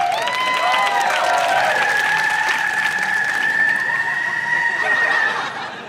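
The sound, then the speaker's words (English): A sound effect of a car's tires peeling out with a high, sustained screech that rises and holds for several seconds over a broad rush of noise, loud, before tapering off. “That's sound effects of a car peeling out.”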